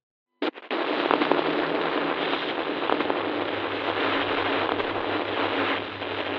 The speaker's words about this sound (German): Ein harsches Rauschen schallt aus den Lautsprechern, als du die Datei öffnest. Es stört die Stille im Raum, überrascht dich und lässt dein Herz schneller schlagen. Es gibt ein paar Störgeräusche, als die aufnehmende Person das Mikrofon einstellt.